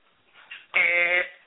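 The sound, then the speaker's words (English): A single harsh, droning buzzer blares for about half a second, loud and steady, like a game-show wrong-answer sound, preceded by a few faint murmurs. “wrong answer.”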